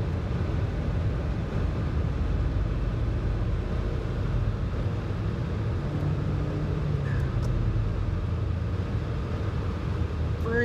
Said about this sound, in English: Sorry, traffic. We'll have to figure that out. Got cut off by a merger, and then no one would let me back over uh, to get around him as he was merging on to the highway there.